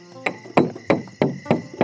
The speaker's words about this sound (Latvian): Kāda no meitenēm klauvē vēlreiz, šoreiz jau skaļāk.